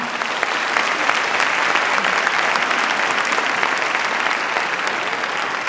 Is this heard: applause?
yes